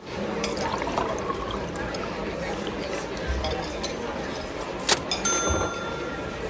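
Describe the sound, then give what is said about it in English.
Tea pours steadily into a cup, a continuous splashing trickle with a single bright clink of china near the end, over faint background murmur. “A cup of your finest brew, thanks, love.”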